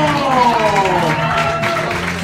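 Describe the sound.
A loud show audience cheers and applauds as a player is introduced, a steady, dense roar that lasts the whole moment, with raised voices ringing through the continuous wash of clapping.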